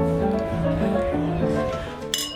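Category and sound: household object, glasses clinking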